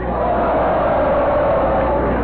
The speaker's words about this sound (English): I want to hear a poem that makes this audience yell, ho!